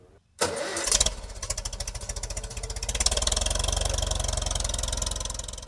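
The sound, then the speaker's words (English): The rebuilt engine of a 1954 Farmall Super MTA tractor in western Pennsylvania cranks and catches at once, then settles into a loud, steady chugging idle with a deep rhythmic low-end thump, with no talking. “This week we're going to hop out to western Pennsylvania to learn about a special 1954 Farmall Super MTA.”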